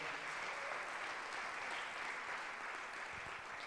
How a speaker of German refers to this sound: Ihr habt das übrigens super gehabt, gemacht. Lasst uns dem Worship-Team mal einen Applaus geben. Richtig. Uns in die Gegenwart Gottes geführt.